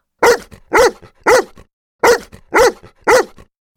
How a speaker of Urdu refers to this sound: پر کتا اب بھی غراتا رہا